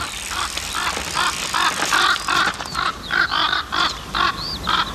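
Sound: crows cawing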